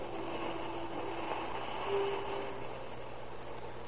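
Train number three from Phoenix, Arizona rumbles steadily into the Southern Pacific Station at 7:45 on the morning of October 19, 1931, with a continuous mechanical roar, and a thin metallic squeal rises briefly over it partway through, as if braking. No voices.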